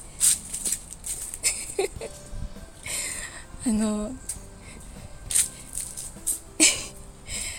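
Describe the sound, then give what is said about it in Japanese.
Footsteps crunch and rustle through dry fallen autumn leaves on a tree-lined walking path in several uneven, crisp bursts of moderate loudness, with a short laugh and a brief spoken word in between. “遊歩道なのでまあ木がいっぱい生えてるんですけど葉っぱがすごい落ちてきたのでやっぱり秋ですねあのこれからの季節きっとカサカサ言いながら歩くと思いますこうやって”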